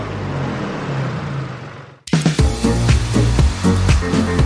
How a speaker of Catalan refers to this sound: Pots, pots parar el tractor com a mínim? Sí, sí, perdó, perdó.